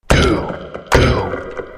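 A gavel bangs twice, about a second apart: two loud, sharp wooden knocks, each with a brief ringing tail. No one speaks.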